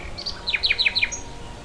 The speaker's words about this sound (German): Einer Nachtigall ist das egal. Sie flötet ihre Strophen in dem Schema, das Silke Kipper entschlüsselt hat.